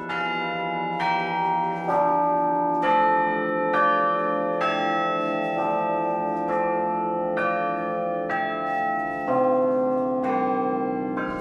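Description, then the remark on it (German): Tower carillon bells, fixed in the bell frame with only the clappers moving, played from a keyboard of wooden keys struck with fists: a slow melody, one struck note about every second, each with a bright metallic attack and long ringing hum overlapping the next, steady and fairly loud with no voices. “ist es bei einem Turmglockenspiel so, dass die Glocken fest im Glockenstuhl installiert sind und nur der Klöppel bewegt wird”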